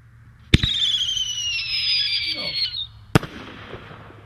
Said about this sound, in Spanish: Señores, van a poder presenciar a continuación mm. los fuegos artificiales. de, qué fue? De, Macy. Macy. 4 July.